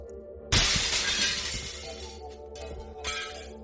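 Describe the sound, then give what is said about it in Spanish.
Glass shatters loudly and suddenly, a bright crash followed by a scatter of tinkling shards, then a second smaller burst of breaking glass a few seconds later. No one speaks. “Un ruido de vidrios rotos y los gritos destemplados de su mujer lo despertaron sobresaltado.”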